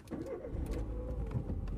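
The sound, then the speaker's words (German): A car engine rumbles with a steady low drone and a few light clicks and rattles as the car starts up and pulls away, driving to a meat factory a few kilometres away. No one speaks. “Noch am selben Tag steige ich ins Auto, fahre zu Westfleisch.”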